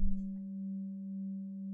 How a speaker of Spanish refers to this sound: Te seguiré guiando con el sonido de los cuencos mientras tú sigues contemplando.